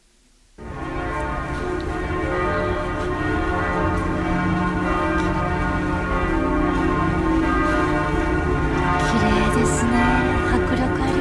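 Several large bells of Notre-Dame Cathedral in Paris, France, peal together outdoors, recorded around 2016 or 2017; their overlapping strikes blend into a loud, continuous, resonant wash that swells in after a brief quiet start and keeps ringing throughout.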